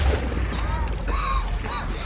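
A diver pushes off from the seabed and surfaces: sloshing water splashes as something breaks the surface, a steady churning burst of water noise lasting about two seconds with no voices.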